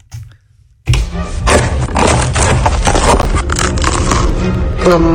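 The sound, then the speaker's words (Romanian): Someone bites into a slice of crunchy toasted bread topped with ricotta, tomatoes sautéed with garlic, parmesan and basil: after a brief hush, loud, dense crackling crunches burst in and keep going for several seconds of steady chewing, with no talking. “iată cum sună când muști din felia asta de pâine prăjită cu ricota și roșii călite cu usturoi, parmezan și busuioc.”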